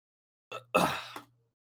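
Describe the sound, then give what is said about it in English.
A single sudden hiccup: a short catch in the throat followed by a breathy, voiced burst that fades within about a second, with nothing else around it. “I, I had a fucking uh, hiccup. I was trying to fight back.”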